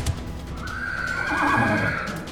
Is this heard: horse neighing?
yes